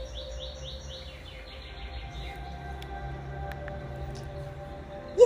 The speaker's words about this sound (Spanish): estás en el bosque y empezás a escuchar el ruido de los pájaros, la naturaleza, conectás con este lugar.